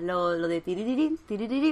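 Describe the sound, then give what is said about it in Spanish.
A single clear voice sings a quick melodic phrase in nonsense syllables, imitating the music theme of the Guardian enemies in a video game; three short bursts separated by brief pauses. “Guardiane, Guardianes, no te va a hinchar de matar guardianes, pero. que suena así, a ver.”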